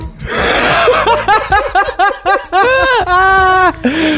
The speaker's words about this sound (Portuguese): Ai, o cachorrinho pai. tá latindo, tadinho. Tá latindo, é, tá tossindo. Eu acho melhor nem ter edição. Vai assim. Deixa, deixa ele latindo, tadinho. Gente, não repara não, nós temos o cachorrinho aqui do lado que tá meio tossindo aqui